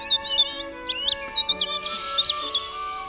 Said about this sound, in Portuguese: Hoje eu consigo sentir a brisa batendo no meu rosto e ouvir os pássaros cantando,